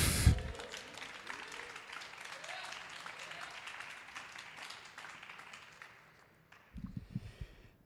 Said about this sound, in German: Und bitte jetzt die Nummer 6 auf die Bühne mit großem Applaus. Applaus für den Chief.